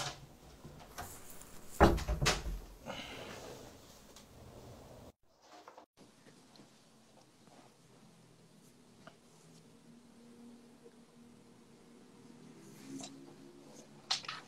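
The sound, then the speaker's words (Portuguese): A door in a house swings shut with a heavy thud, followed by a brief rattle, then quiet background with faint handling sounds and light knocks. “Deixa eu só fechar a porta aqui, gente.”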